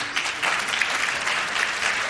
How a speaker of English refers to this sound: raise your hands or clap so that the audience listening can hear you.